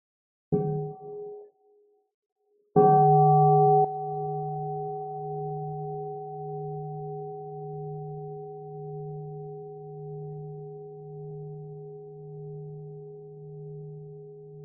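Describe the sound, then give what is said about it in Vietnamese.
A Buddhist meditation bell gets a short, muted tap, then a full strike a couple of seconds later that rings out with a deep, steady hum, slowly fading over more than ten seconds. No voices. “xin xin cô thỉnh một tiếng chuông”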